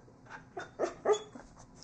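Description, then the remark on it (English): A dog gives a few short, yappy barks and whiny yips in quick succession, with the two middle barks loudest. “We have a noisy dog.”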